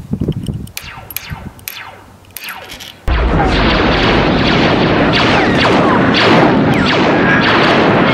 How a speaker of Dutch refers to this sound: De lightsaber van Star Wars, de ja. als je met je microfoon dichter bij je box komt, heb je feedback. Dan heb je dat Mhm. En dat is eigenlijk dat geluid van feedback, dat is eigenlijk wat de lightsaber is.